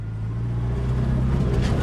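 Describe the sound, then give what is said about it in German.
A tractor drives along with a steady, heavy diesel rumble, its low engine drone holding an even pitch throughout with a faint rattling hiss over it and no voices. “Also zu Tieren schauen, zu den Pflanzen schauen, manchmal ein bisschen Traktor fahren.”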